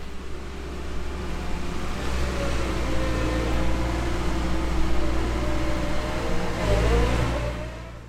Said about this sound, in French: Puis, en 15 jours, on a entendu le doux bruit des engins de chantier.